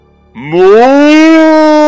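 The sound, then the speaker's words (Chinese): A single loud cow moo that starts low, slides upward in pitch and then holds a steady, droning tone for over a second, with no other sounds around it. “哞！让我们拆除栅栏，一起吃草吧！”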